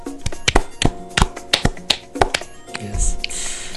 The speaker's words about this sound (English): Yay! Yay. A round of applause.